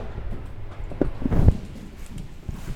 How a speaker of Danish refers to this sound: Nej, det er vinduet, siger den lyd. Hold da op. Det er fordi, der er sådan, ja, det er gang ud til et vindue.